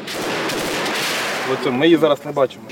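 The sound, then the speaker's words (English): A dense, sustained stretch of rapid gunfire crackles loudly during a Ukrainian military drill using largely Soviet-era weapons, then gives way to a man's raised voice calling out. “Even in this drill, much of the firepower dates back to the Soviet era.”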